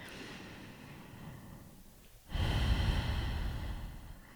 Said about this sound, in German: Ähm, und ne, tief atmen heißt jetzt nicht, dass es wahnsinnig anstrengend sein muss oder irgendein besonderes Schema sein muss, sondern wirklich so dieses,